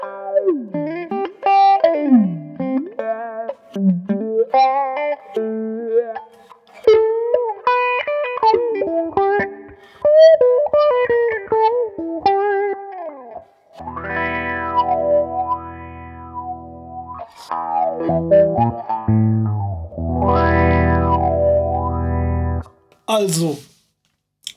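Electric guitar played through a Boss MD-200 modulation pedal, its notes warbling and sweeping in pitch, with stretches of swirling phaser-like chords and sustained, wavering tones; no talking, just the effected guitar throughout.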